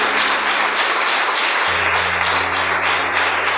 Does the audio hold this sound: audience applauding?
yes